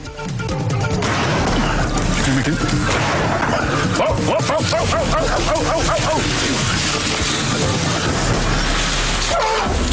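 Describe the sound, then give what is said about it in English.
Several sharp gunshot cracks ring out amid loud, chaotic noise as Tony Makris shoots a sleeping elephant in the face on the TV show Under Wild Skies, followed by the elephant's drawn-out, wavering trumpeting calls that rise and fall near the middle, with a busy, rough background throughout. “The gunshots you heard and the trumpeting was the sound of Tony Makris shooting a sleeping elephant in the face.”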